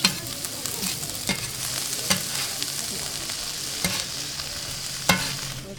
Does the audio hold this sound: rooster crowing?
no